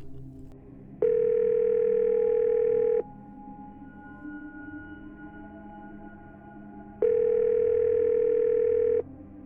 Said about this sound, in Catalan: després d'introduir-la a la ranura de la cabina de telèfon, marca el número de casa.